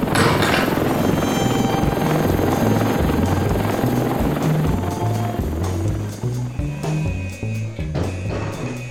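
A helicopter's rotor thumps steadily and loudly, a continuous low chopping drone with engine whine layered over it throughout, as a person climbs aboard.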